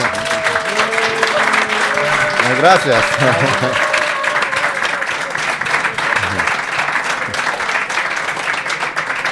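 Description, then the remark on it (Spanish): Sustained audience applause, a dense, steady wash of clapping that fills the whole clip, with a voice briefly speaking and laughing over it near the start. “os pido a todos los que estéis aquí que le demos un aplauso enorme”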